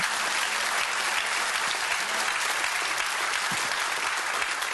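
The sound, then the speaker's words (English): A church audience applauds steadily during a pastor's sermon, a dense, even wash of many hands clapping at constant loudness, with no voices rising above it. “and I'm not I'm not saying this I'm really not saying this to try to get an applause or anything.”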